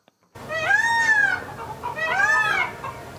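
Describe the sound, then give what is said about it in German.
Chickens call out twice, each a drawn-out, rising-then-falling squawk lasting nearly a second, fairly loud over a faint outdoor hum, with no one speaking. The chickens are running across the forecourt of the Benis Hirschfarm, a deer farm in Arezza in the Safiental. “Pfauen und Hühner, die über den Vorplatz laufen und zwei Lamas, die gemütlich am Gras fressen sind.”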